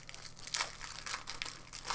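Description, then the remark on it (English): Crinkling accordion-shaped packaging made of balloon foil being handled during an unboxing, a steady run of crisp, rustling crackles and crunches in irregular bursts, with no voices. “An accordion made out of the uh, foil that balloons are made out of.”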